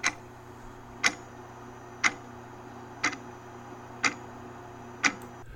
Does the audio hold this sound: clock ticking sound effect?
yes